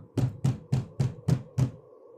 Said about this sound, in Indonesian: Terus tiba-tiba ketukan tadi tiba-tiba muncul lagi gitu kan. Mereka ngetok-ngetok lagi gitu.